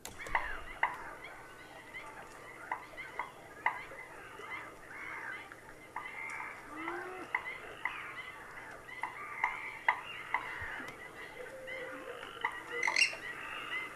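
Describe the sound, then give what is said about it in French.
A nighttime marsh chorus at the Étang de Scamandre in the Camargue: dense, continuous croaking of Perez's frogs layered with sharp calls and squawks from coots, moorhens and purple swamphens, with coypu also present, and a faint low hum beneath. “l'étang de Scamandre, où j'aime aller passer parfois des nuits euh, à l'écoute du, du, marais”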